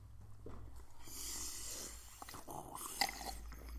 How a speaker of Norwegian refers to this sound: Skal lage et, et visuelt bilde Nei, et audiovisuelt bilde av vanndrikking.